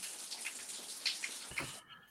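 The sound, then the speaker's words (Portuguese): A steady, soft hiss of rain falling, continuous and fairly faint, with a few small drip-like ticks before it cuts off abruptly near the end. “É, chovendo aí, né”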